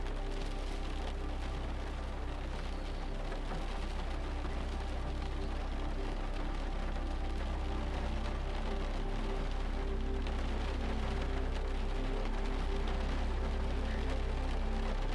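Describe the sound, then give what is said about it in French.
Steady rain patters against a house and runs down to the grass, a continuous, dense wash of drops, even in level throughout, with no voices present. “Vous entendez la pluie taper contre la maison et ruisseler jusqu'à l'herbe au sol.”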